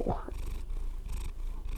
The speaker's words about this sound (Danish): Katten hæpper også. Jeg ved ikke, om man kan høre det, der bliver spundet.